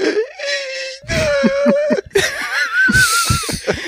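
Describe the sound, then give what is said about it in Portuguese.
A voice imitates Loki's labored, wheezing breathing from a scene in an Avengers film: a few strained, whining inhales and exhales in close succession, loud, with a faintly laugh-like quaver. “E o Loki só fica respirando ali.”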